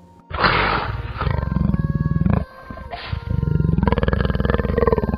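A tiger roars twice, each a long, loud, rumbling growl with a deep pulsing throb, separated by a brief pause. No voices are heard.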